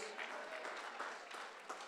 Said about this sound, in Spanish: Muy pobres aplausos esas